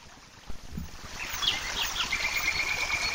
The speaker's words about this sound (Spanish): Bueno, ahí, ahí estamos escuchando, parece que estamos ahí al lado de una cascada con pájaros y demás.